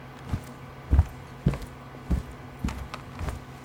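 Six steady footsteps walking at an even pace through an office past empty workstations, each a soft, low thud, over a constant low electrical hum from a computer. No voices.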